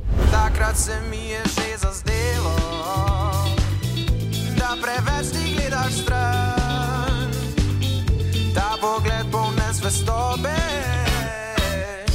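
A pop song played by a band, with a lead singer's melodic vocals over steady bass, drums and bright keyboards, loud and continuous throughout with no talking.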